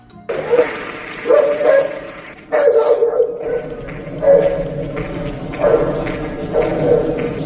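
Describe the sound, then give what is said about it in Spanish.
Dogs bark in repeated bursts, roughly one every second or so, fairly loud, with some yelping mixed in over a steady background murmur. “Pero cuando termina su perorata, ya es que hasta le contestan los perros.”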